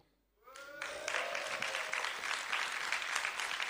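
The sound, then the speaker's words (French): An audience bursts into loud, sustained applause for a fan club, measured by applause in a fan-club contest during a question-and-answer session. After a brief quiet moment, a dense crackle of many clapping hands holds steady to the end, with a few cheering voices rising at the start. “Ah, à l'applaudimètre.”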